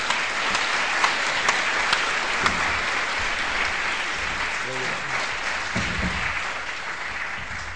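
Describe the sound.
Sustained applause from a sizable crowd welcoming Ali Allawi to speak on his book In Search of Islamic Civilization, a dense, steady patter of clapping that holds for several seconds and tapers slightly toward the end, with faint voices murmuring underneath.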